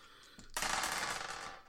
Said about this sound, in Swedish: Ja, det, det såg ut som att det gick på rätt håll men du missar honom precis. Skottet viner förbi alltså skallen på honom.